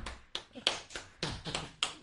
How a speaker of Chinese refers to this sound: 掌声，掌声如雷啊！